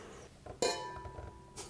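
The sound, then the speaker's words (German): Wine tasting glasses clink together once with a bright chime that rings on for about a second, followed by a softer knock near the end, with no talking. “Ganz anderer Klirr. Gibt, oder?”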